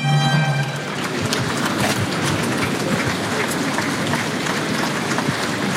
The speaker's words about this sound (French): Oui, respectueusement applaudi, le picador à sa sortie.